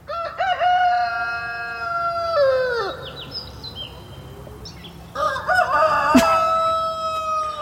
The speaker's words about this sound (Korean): 자, 두 가지 소리입니다. 첫 번째 닭소리를 내고 좀 쉬었다가 두 번째를 내는데 두 번째 닭소리 두, 두 번째 닭소리가 다 같은 닭인데 약간 목이 나갑니다.